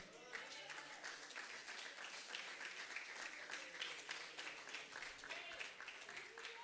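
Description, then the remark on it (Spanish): An audience breaks into sustained applause for God, dense overlapping claps filling the whole stretch at a steady, loud level, with scattered voices calling out beneath the clapping. “Ante la mano y denle un aplauso a Dios en esta hora.”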